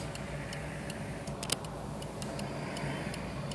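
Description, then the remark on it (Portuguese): A steady, muffled rumble of heavy road traffic heard from inside a car trying to pull out of a gas station on a sunny day, with a regular clicking tick running through it like a turn signal. No one speaks. “Olha só, esse trânsito tá demais.”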